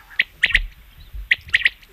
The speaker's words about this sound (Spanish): Muy bien, …, la codorniz, sí señor.